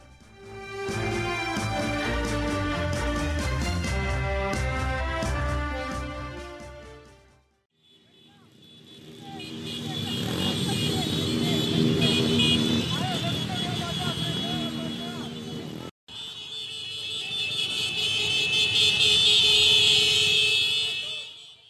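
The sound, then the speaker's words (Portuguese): A short musical intro gives way to a loud motorcycle protest convoy of app delivery workers during a two-day strike in 2020: a dense rumble of engines with shouting voices, then shrill sustained horns blaring over the crowd. “Esse som que você ouviu agora é de um movimento que aconteceu em 2020 chamado Break dos Apps, uma paralisação de dois dias feita por profissionais de aplicativo junto a motocicletas em diversas regiões do país.”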